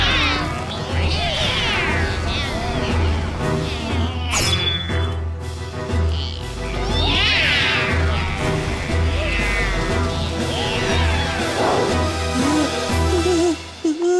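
A cat meows repeatedly in long, wavering, yowling cries that swoop up and down in pitch, loud over a steady low rumble, with a sharp knock partway through.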